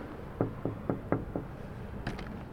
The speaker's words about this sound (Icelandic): og við ætlum að banka upp á.